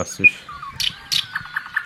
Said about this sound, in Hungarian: Szeret, szeretnél olyan zenét hallgatni, hogy madárhangok vannak lekottázva? Természetesen igen. Jó, akkor a legutolsót, a hármast. Nem csak madárhangok vannak lekottázva, hanem a farkas üvöltést is lekottázták, és alul látható a kotta.